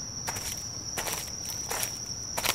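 Four footsteps of a person walking back home, at a slow, steady walking pace, each a soft scuffing crunch, over a constant high-pitched insect trill that runs through the whole clip.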